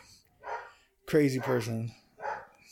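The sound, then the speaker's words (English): A dog barks a few times in short, scattered bursts at something outside, while a person talks over the sounds. “Uh, if you guys can hear that, please excuse the dog.”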